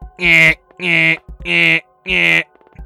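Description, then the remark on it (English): A voice imitates a blaring magical alarm spell, triggered by breaking glass, with four loud, evenly spaced wailing blasts, each about half a second long with short gaps between, strongly harmonic. “as an auditory alarm spell uh, was triggered from the glass breaking.”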